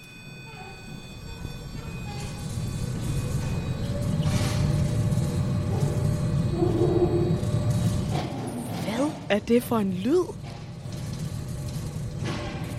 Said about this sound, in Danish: Det her er lyden af et tag, der åbner sig – ude midt på en mørk mark. Vi er nemlig på et observatorium.